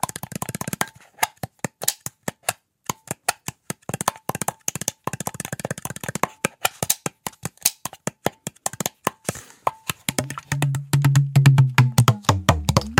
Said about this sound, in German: Dieses eine klackende Geräusch, was du da gerade gemacht hast, das äh, ist dir aufgefallen, dass es eben an dem Deckel